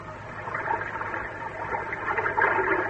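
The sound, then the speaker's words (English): A steady rush of churning water as a submarine submerges beneath the sea, with a dense hiss and low gurgling that swells slightly toward the end. No voices. “The weird craft plunged under the sea.”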